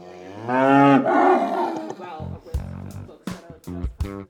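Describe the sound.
A cow lets out one long, loud, drawn-out moo, and once it fades a person begins speaking.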